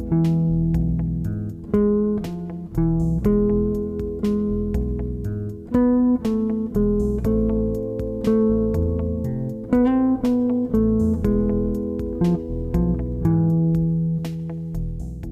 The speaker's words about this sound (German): So, was war das? Das war ein jiddisches bekanntes Lied mit dem Titel Havanagila. Das kennen die meisten, richtig? Das Tonmaterial für die Melodie stammt aus A harmonisch Moll.